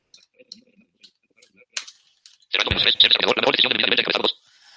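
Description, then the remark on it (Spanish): A burst of very fast, buzzy synthetic speech from a computer screen reader set to a high speed lasts about two seconds after a few soft clicks and a sharp tap. “Esta voz tan chunga y tan rápida es el lector de pantalla.”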